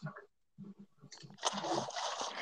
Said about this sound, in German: Ich bin im Wasser gelandet, aber habe Schaden bekommen. Ja, ganz fieser Bug, kenne ich.